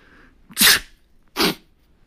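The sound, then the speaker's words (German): Two sharp sneezes a second apart, each a quick breathy burst, performed by a voice faking sneezing, with quiet pauses and no talking in between. “faken, dass ich niese.”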